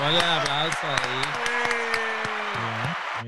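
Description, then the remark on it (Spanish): A steady wash of applause about three seconds long, with sharp individual claps popping out, over a sustained voice-like tone that steps between pitches before everything cuts off abruptly. “Ah, un aplauso,”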